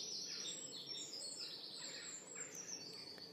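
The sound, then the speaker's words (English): A dense chorus of early-morning birdsong, with many overlapping high chirps and trills running continuously, steady in volume throughout. No voices are present. “And it accompanies, uh, accompanying that light is a is a recording of birdsong, which is nice, but nothing beats this.”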